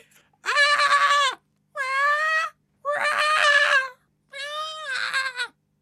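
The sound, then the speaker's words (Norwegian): A person imitates a mink's call with four loud, drawn-out whiny cries, each about a second long and high-pitched and strained, separated by short pauses, with no other talking. “Hvordan i helvete er det et mink låter?”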